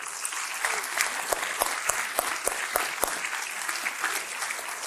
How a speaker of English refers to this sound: You ready? Not $93 million, $113 million. Let's cheer.